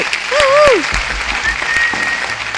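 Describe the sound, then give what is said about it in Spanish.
An audience claps steadily throughout as a speaker is introduced on stage, a dense crackle of many hands that swells early and then holds, with a brief vocal cheer rising over the applause near the start. “Me, hago el, aplauso a mí mismo también.”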